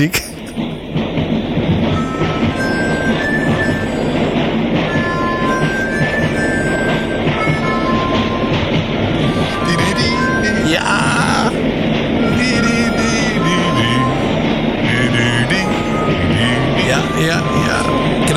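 A theme tune layered with train sounds: steady rumbling and clattering rolls beneath short tonal melody notes, with harmonica on top and a rising whistle-like sweep partway through, loud and continuous throughout.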